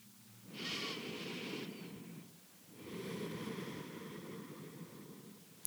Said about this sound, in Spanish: Entonces, literalmente tomen conmigo una respiración y sintamos este amor.